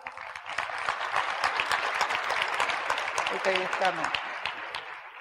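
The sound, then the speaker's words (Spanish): Loud audience applause, a dense steady rattle of many hands clapping for several seconds, with a brief voice emerging faintly near the end. “para que pida un fuerte aplauso.”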